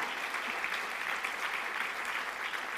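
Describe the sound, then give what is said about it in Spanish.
An audience applauds the Lord steadily, a dense and even patter of many hands clapping at once with no pause, holding an even level for the full few seconds and no voices standing out. “Merece un aplauso al Señor eso.”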